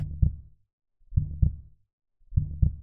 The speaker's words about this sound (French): Si on balance le son d'un cœur qui bat